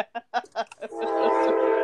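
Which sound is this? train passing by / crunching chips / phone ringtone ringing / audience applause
train passing by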